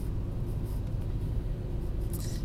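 A steady, low engine rumble fills the inside of a moving car, a constant droning hum with no voices, holding at an even level throughout.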